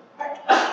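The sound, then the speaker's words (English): A single sneeze: a brief rising intake followed by a sharp, noisy burst that trails off quickly, with no talking around it. “bless you.”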